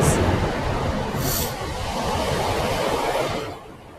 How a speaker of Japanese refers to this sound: また電車が通ってうるさいで